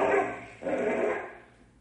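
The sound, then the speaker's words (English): A dog named Bim barks and snarls in two loud, rough bursts while fighting a rattlesnake, the second trailing off into a fading growl, with no voices present. “hope that snake is not bite our dog.”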